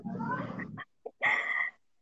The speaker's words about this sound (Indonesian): ada kucing bilang kaget aku ih ada kucing guys ya Allah ada ada ya kalau iya.